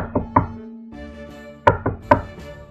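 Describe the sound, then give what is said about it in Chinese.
A king's messenger knocks on a house door: two sharp raps, a short pause, then a quicker run of four firm knocks, with a low steady hum underneath and no voices. “敲门的声音引来桑塔太太两只机警的狗不断的狂吠。”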